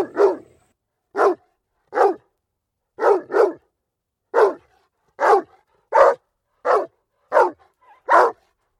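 A dog barks loudly and repeatedly, about a dozen sharp, evenly spaced barks in a steady rhythm, with no other voices or sounds around them.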